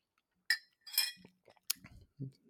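A few sharp ceramic clinks, like a coffee cup being set down and picked up, mixed with faint low handling sounds and a brief soft sip. No one speaks.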